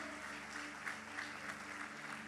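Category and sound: crowd, audience applause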